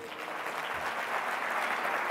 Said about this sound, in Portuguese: Dê um aplauso a ele.